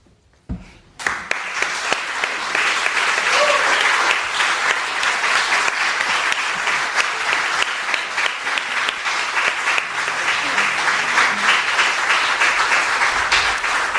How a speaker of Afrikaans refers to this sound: Ja, dis applous vir Paul Eilers maar ook vir Chris Barnard en die rebellie van Lafras verwy wat ook ehm um, natuurlik nou 'n film is.